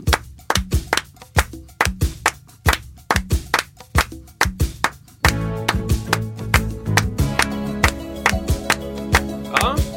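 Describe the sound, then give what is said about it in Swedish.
Hands clap out a steady, syncopated rhythm of sharp, bright hits along to a song, alone at first; after about five seconds, sustained musical tones join and the clapping continues over them. “vi klappa en rytm till den.”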